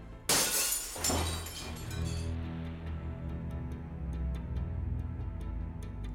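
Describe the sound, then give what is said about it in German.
A window pane of the Reichstag building shatters at around 9 pm on 27 February as an intruder breaks in, with a sharp, loud crash near 0.3 seconds and a second burst of breaking glass, followed by tinkling shards and a lingering low rumble fading into sparse clinks. “Am 27. Februar gegen 21 Uhr beginnt das größte Rätsel des Reichstags. Mit einer zerbrochenen Fensterscheibe.”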